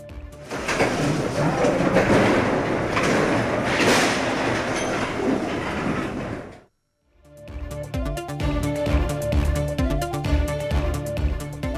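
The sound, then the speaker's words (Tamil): A loud, steady rumble of a derailed train carriage rolling along rails as it is set back on the track after a nine-hour recovery effort lasting until midnight fills the first six seconds, then cuts to a brief silence before tonal music begins. “விபத்தில் தடம் புரண்ட ரயில் பெட்டிகளை மீட்கும் பணி நள்ளிரவு வரை நீடித்தது ஒன்பது மணி நேர போராட்டத்திற்கு பின் தண்டவாளத்தில் நிறுத்தப்பட்ட ரயில் பெட்டி”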